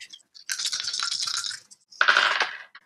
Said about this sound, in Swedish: Då får du slå tre tärningar och du får ta ett högmod efter slaget.